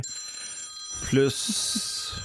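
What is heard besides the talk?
mobile phone ringing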